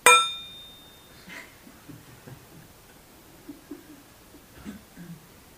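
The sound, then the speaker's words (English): A single bell is struck once, its bright metallic tone ringing out clearly and fading over about a second. Faint low rustles and murmurs follow in the quiet background. “if you do that with a bell and then it comes time to strike it,”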